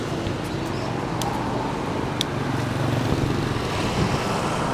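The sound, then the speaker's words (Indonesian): A steady roar of busy Sunday road traffic in front of Bandung Trade Mall in Bandung as someone crosses the road, with engines droning continuously and motorcycles passing by, their sound swelling and fading against the constant background rumble. “nah iya yang nyebrang di hadap Bandung Trade Mall nih BTM anjir seramai pisan. sumpah kemana nyebrang nah iya ramai gitu sepeda anjir motor mah gampang”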